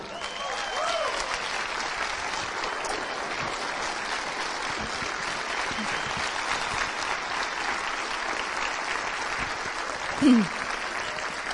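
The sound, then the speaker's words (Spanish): A crowd applauds steadily to welcome a guest at an event, a dense wash of many hands clapping at an even loudness for over ten seconds, with a brief vocal whoop rising near the end. “Así que ayúdenme con un fuerte aplauso para recibirlo.”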